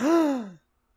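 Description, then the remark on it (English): A single dramatic, voiced gasp, fairly loud, with a pitch that rises then slides down before cutting off abruptly into silence. “I gasped.”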